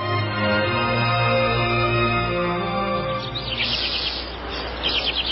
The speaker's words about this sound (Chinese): 第五天，张健在一片清晨的鸟叫声中。挣扎着醒来，或许是太行山的早晨给了张晋求生的欲望，或许是鸟叫声唤醒了他最后一丝活着的本能。